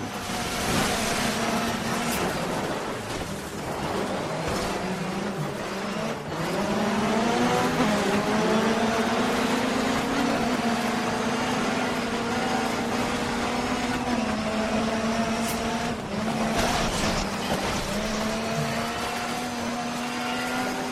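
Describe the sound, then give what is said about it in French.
Racing car engines in a video game trailer roar steadily on a track, their pitch rising and falling through gear changes, with occasional tire squeals and louder passing bursts. No voices are heard. “là on est sur la piste, on est on, on est sur le bitume, sur sur l'asphalte et, et sur la terre”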